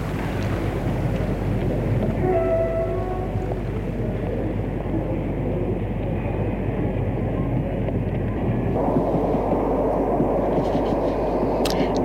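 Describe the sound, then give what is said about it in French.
Steady, dense rumble of a train station hall in France, a constant low roar with faint tonal squeals or announcements drifting through, and a brief shift in texture near the end; young people play guitar and people beg for money in the hall; no clear talk. “est entrée dans le hall de la gare.”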